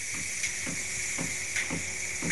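An espresso machine's steam wand hisses steadily while frothing milk, with soft low knocking pulses repeating about twice a second underneath, continuous, with no voices.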